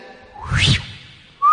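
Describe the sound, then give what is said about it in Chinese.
A person whistles a quick swooping note that climbs and then drops, with a soft breathy rush underneath, followed moments later by the start of a second rising whistle. “马上掉下来，吹个口哨就掉下来。”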